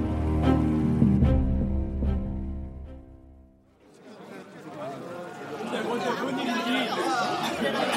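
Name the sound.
crowd of people chattering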